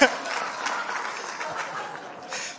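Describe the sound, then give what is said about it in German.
A church audience breaks into applause, a dense, steady patter of many hands clapping that holds at an even level for a couple of seconds, with faint murmurs and chuckles mixed in. “Das gibt Applaus, okay, stark.”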